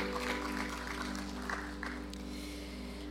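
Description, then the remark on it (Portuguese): An audience at a church service applauding together in praise of God, a steady wash of many hands clapping at low volume, with a faint electrical hum underneath and no one speaking. “Pode aplaudir ao Senhor e agradecer e exaltá-lo.”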